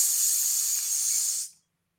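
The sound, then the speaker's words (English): A voice imitates the hiss of a spray tan: one steady, bright breathy "pssh" held for about a second and a half, then cut off abruptly into silence. “It looked like someone just took like Bronco uh, took like spray tan. It was just like.”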